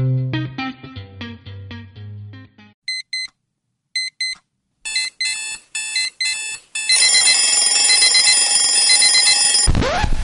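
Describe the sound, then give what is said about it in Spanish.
An electronic alarm clock goes off: a short melodic chime, then paired beeps in bursts that speed up into a loud, continuous shrill ringing, cut off abruptly at the end. “Sabemos lo mucho que odias este sonido. Nosotros también. Mejor inicia tu día con Wake Coupé.”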